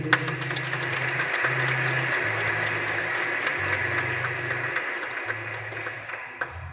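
A crowd applauds steadily for about seven seconds for three adults being thanked at a church celebration, a dense, even clatter of many hands, while low sustained tones, like held keyboard notes, play underneath. No one speaks.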